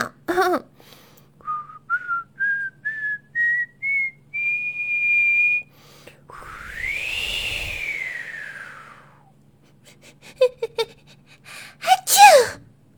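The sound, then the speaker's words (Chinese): Whistling north wind in autumn: a run of short whistled notes climbing step by step into a long held tone, then a breathy whooshing gust that swells and falls, with sharp bursts near the end. “北风姐姐来了。她正在练习吹口哨呢。”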